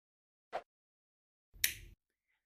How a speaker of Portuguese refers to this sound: E nesse áudio, você ouviu que tem um ventinho e depois tem um clique de ligar a luz.